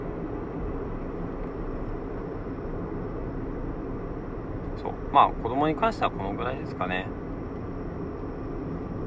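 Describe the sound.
A steady low rumble of road and engine noise fills a car interior throughout, recorded while driving and nearly home, with a man speaking briefly partway through over the constant drone.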